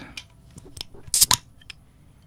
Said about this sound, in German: Dann würde ich sagen, machen wir das doch mal auf das gute Bierblond.